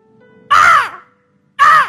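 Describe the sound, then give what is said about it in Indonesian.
A voice imitates a crow's caw twice, each call loud and harsh, about a second apart with a short silence between them. “Kerazu itu kalau dalam terjemahan aslinya, itu bunyi suaranya seperti burung gagak.”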